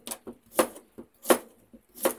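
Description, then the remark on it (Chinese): A knife roll-cutting a washed cucumber for pickling on a board at home: several sharp, bright chops in an uneven rhythm, alternating louder strikes with softer taps, with no one talking. “我发现这个声音啊，我有时候会回听一下我的播客，听到我切菜的声音，也这边也太生活化了吧？”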